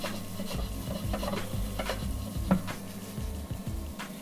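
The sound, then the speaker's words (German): Oat flakes, turning crispy, sizzle steadily in a frying pan as the heat is turned down one level, while a utensil stirs and scrapes them in a series of short, irregular strokes, with no one speaking. “Jetzt kann ich die Pfanne auch, also ich reduziere jetzt hier um eine Stufe die Hitze nach unten.”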